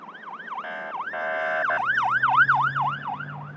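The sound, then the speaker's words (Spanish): Police patrol car sirens wail loudly while chasing an armed man speeding in a stolen pickup truck in Zapopan, near Guadalajara, Mexico: a rapid yelping whoop broken by a steady two-tone blare partway through, with a low rumble of traffic underneath and no talking. “Un hombre armado conduce una camioneta a toda velocidad, perseguido por patrullas.”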